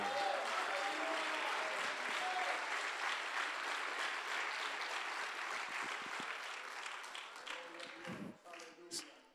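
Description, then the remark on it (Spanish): An audience applauds with dense, sustained clapping that holds steady for several seconds, then thins out and fades, a few scattered claps and faint voices remaining at the end. “Un aplauso para él.”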